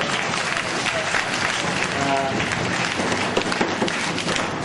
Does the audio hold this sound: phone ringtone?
no